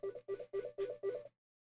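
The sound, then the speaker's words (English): A telephone rings in a quick run of five short, even electronic chirps, then falls silent. The ring is fairly quiet, with no talking over it. “I don't know, the phone just rang.”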